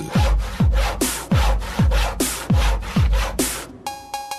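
A handsaw cuts through wood in fast, steady back-and-forth strokes, loud, each stroke a rough rasping burst, ending with a brief metallic ringing of the blade.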